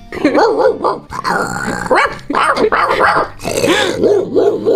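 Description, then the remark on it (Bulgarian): A person imitates a range of dog barks, loud and nearly continuous, shifting between deeper woofs, growly sounds and higher yappy barks in quick succession. “Вместо това ще науча различни видове лай на куче.”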